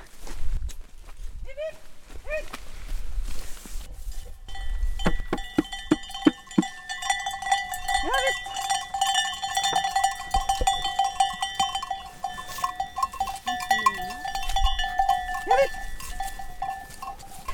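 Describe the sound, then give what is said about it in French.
A flock of ewes arrives, dozens of bells clanking and jingling in a dense, continuous wash, with scattered bleats and shuffling hooves drawing close; faint voices can be heard beneath. “Donc là, on monte sur la butte pour pas que les brebis nous renversent quand elles vont arriver.”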